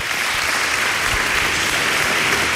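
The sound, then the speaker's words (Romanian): A steady burst of applause, dense crackling clapping from many hands held at an even, fairly loud level throughout, with no voices over it. “încă o dată aplauze pentru aceste mostre de non-gândire, non-empatie.”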